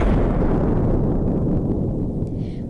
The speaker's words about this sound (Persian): موج انفجار با شتاب زیادی سیاره رو در بر میگیره و هر دو سیاره جوان تبدیل به مایع میشن مثل برخورد دوتا قطره